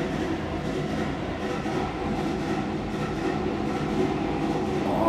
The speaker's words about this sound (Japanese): すいませんすごいねガチャンガチャンガチャンガチャンって今大きなプラレールが僕のそばを通ってしまってね、えー、騒音になってすいません